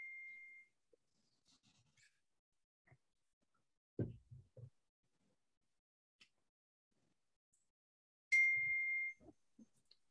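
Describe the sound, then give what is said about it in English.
Two short electronic computer notification chimes during a Zoom meeting ring out, one at the very start and another near the end, each a clear steady tone, with a brief low thump in the quiet between them. “I've got to mute my notifications because that's going to drive me nuts all day.”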